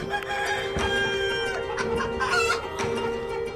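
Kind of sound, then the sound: animal, chickens clucking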